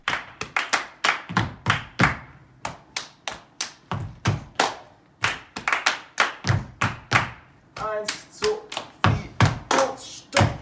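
Body percussion at a workshop on the grounds of the Uferfabrik in Berlin: a steady, rhythmic pattern of sharp hand claps mixed with duller slaps and thumps on the body, played alone without talk, with occasional brief tonal bursts near the end.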